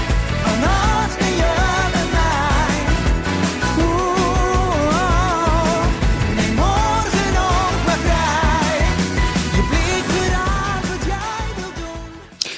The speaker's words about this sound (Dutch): Het is vandaag New Music Friday, dus ik wil je even zijn nieuwe single laten horen.